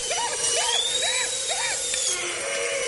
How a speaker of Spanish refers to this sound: Brennan acerca un torno dental a los dientes de Lockhart, que se agita aterrado